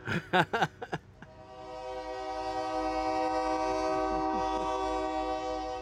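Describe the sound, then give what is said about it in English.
A train passes by, its horn giving several short blasts and then one long, loud, steady blare over a low rumble of the rolling cars. “Another train passes.”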